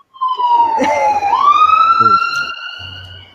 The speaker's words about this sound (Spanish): Vamos a esperar que la ambulancia pase.